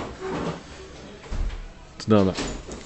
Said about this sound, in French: on va le ferme une, une ou deux fenêtres, de façon qu'on puisse s'entendre.